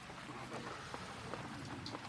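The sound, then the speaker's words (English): Steady rain patters down on a roof in a dense, continuous hiss, with scattered sharper drops ticking through. The sound is fairly soft and even, with no voices. “I'm going to lose my voice if it keeps raining.”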